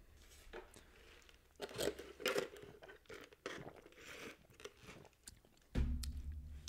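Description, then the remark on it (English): Loud crunching of ice from a drink being chewed, with irregular sharp bursts over several seconds and a heavier, muffled crunch near the end. No one speaks. “I put way too much ice in drinks. That shit was finished in like nine gulps.”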